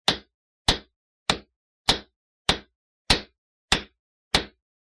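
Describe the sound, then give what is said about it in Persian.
Eight sharp hammer blows land at a steady, even pace, each a crisp bright strike that rings briefly before fading, with no voices: a father hammering late at night while installing a curtain in front of a bathroom mirror. “آخر شب صدای چکش شنیدم و رفتم دیدم پدرم داره جلوی آینه دستشویی یک پرده نصب میکنه”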